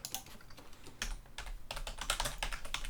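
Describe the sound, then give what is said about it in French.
Rapid, irregular clicking of two computer keyboards, one on each side, typing at once in bursts of sharp keystrokes, no voices. “Et là, vous entendez les deux claviers de chaque côté qui sont en train de taper.”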